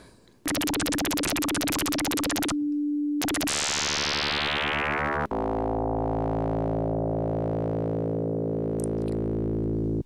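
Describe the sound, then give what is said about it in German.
A loud synthesizer sine wave sweeps and bends in pitch, its harmonics gliding downward with a metallic, FM-style timbre, then settles into a sustained buzzy drone with faint warbling. No voices. “Und wenn ich diese Sinuswelle jetzt nehmen würde und in der Tonhöhe beugen würde”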